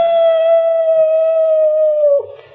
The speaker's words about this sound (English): It sounds like one of our dogs. Yes, it is. It's Sultan, my sister's dog.